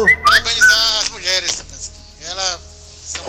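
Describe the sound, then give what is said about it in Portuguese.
A man's mobile phone plays a whistled ringtone of a few quick, bright rising notes, fairly loud, while voices talk over and around it. “som, o som do celular do homem.”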